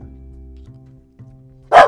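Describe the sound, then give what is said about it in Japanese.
A single sharp dog bark bursts out near the end, loud, following a stretch of low steady background hum with no speech. “おおびっくりした 犬よ最近犬鳴きがちなんだよほんとね”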